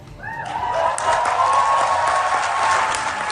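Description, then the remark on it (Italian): Sustained audience applause at the United Nations Intergovernmental Conference on Marine Biodiversity of Areas Beyond National Jurisdiction, greeting the words of conference president Rena Lee: a dense wash of many hands clapping steadily with scattered sharper claps and some cheering, loud and continuous throughout. “Queste le parole accolte da applausi con cui Rena Lee, presidente della Intergovernmental Conference on Marine Biodiversity of Areas Beyond National Jurisdiction alle Nazioni Unite, ha annunciato con le lacrime agli occhi”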